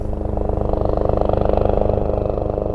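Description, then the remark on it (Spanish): A rescue team's helicopter flying to the Andaman Islands: the engine drones steadily while the rotor beats in a fast, even chop, loud throughout with no voices. “Un equipo de rescate se montó en un helicóptero y voló hasta las Islas Andamán.”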